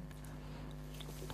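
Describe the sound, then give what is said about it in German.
Faint, irregular crackles and small pops sputter over a steady low electrical hum on a mobile phone line with a technical problem, with no voices heard. “Hörst du das Knacken in der Leitung?”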